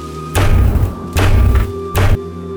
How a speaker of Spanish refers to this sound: Los susurros cesaron y de inmediato la luz del pasillo se apagó, a la vez que sobre la puerta resonaron unos toquidos bastante pesados,